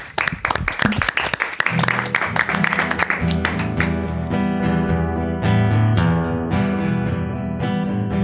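A burst of audience applause for a musician who has just played for them, dense clapping for a couple of seconds, then music with sustained tones comes in while scattered claps fade underneath.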